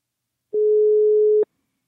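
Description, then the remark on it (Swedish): A telephone busy signal on a call that failed to get through because the other phone was set to do not disturb: a single steady electronic tone, mid-pitched and clear, holding for about a second before cutting off abruptly, with silence around it and no voices. “Ja, det gick inte att komma fram till dig.”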